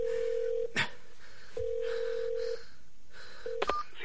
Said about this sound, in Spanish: Comienza a marcar el teclado. Sigue apretando los botones y llama.